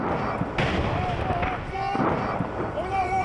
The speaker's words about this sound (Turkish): İsrail askerleri bombalanmış binaların yakınındaki bir alandaydı. Hamas'a ait insansız hava aracı grubun yakınına bomba bıraktı.